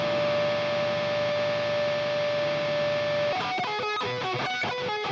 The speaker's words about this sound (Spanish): Se sigue escuchando bien culero. Yo creo que le voy a meter más distorsión.